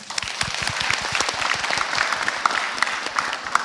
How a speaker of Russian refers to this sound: Ребят, а поаплодируйте, пожалуйста, вот кто тоже считает, что это была вдохновляющая классная встреча.